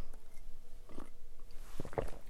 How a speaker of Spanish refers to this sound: un sorbito de té.